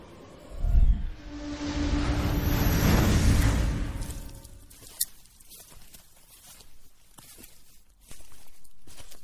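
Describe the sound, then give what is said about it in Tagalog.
Irregular, scuffing footsteps of a man walking patter after a loud rushing whoosh at the start, with soft clicks and shuffles continuing to the end and no one talking; while walking, the man picks up a piece of paper. “Habang naglalakad, isang lalaki ang nakapulot ng isang kapirasong papel na may nakasulat na Yari.”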